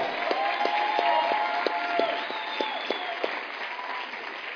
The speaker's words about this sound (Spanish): Quienes no tenían pasaporte ni siquiera, quienes no tenían pasaporte ni siquiera. Un aplauso para ellos, así es.